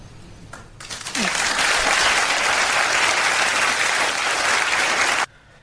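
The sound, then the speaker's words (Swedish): A studio audience on the talk show Skavlan bursts into loud, dense applause that builds quickly, holds steady for about four seconds, then cuts off abruptly into near silence. “Fast det är ju mycket det här hänget mellan eh, punkt och applåd.”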